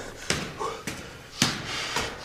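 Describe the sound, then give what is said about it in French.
Heavy, rapid panting, about four sharp breaths in two seconds with a steady rhythm of strained gasps, from someone short of breath after climbing a few floors of stairs. “Ça vous dit quelque chose ce son Le souffle court, après la montée de quelques étages, cet essoufflement”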